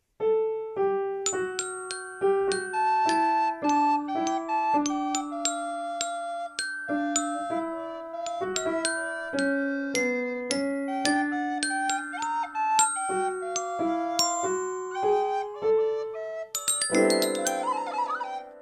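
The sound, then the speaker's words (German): Flute, piano and glockenspiel play a cheerful medley of snow songs, bright bell-like notes ringing over steady melodies, ending in a quick tinkling flourish. Nobody speaks. “Du die Flöte, ich spiele Klavier und du, Fini, nimmst dein Glockenspiel.”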